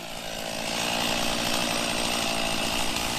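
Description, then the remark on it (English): A chainsaw roars steadily at full throttle, cutting dead wood into firewood in a remote community on South Australia's far west coast. A dense, buzzing whine holds without pause, loud, with no voices. “In a remote community on South Australia's far west coast, a group of young Yalata Anangu men are firing up chainsaws and turning dead wood into a valuable resource.”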